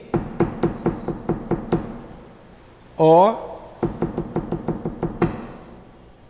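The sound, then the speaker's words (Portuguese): Sharp, evenly spaced knocks tap out a run of about seven, then a voice briefly calls out a letter, and another steady series of knocks follows, counting toward the next letter; the number of knocks gives each letter of the alphabet, spelling out the word amor. “Aí eles iam botando o um número de pancada e escrevendo.”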